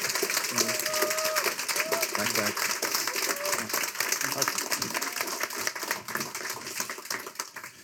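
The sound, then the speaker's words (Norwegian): An audience applauds steadily for authors Lasse Gallefoss, Gard Sveen and Aslak Nore, a dense crackle of many hands clapping at an even, sustained loudness, with some faint voices and tonal sounds mixed in underneath. “Men hvis dere da kan gi dem den applausen de fortjener Lasse Gallefoss, Gard Sveen og Aslak Nore.”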